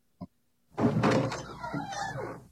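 A short sharp click like a latch, then after a brief pause a loud, full rush of sound as a door swings open and the noise beyond floods in.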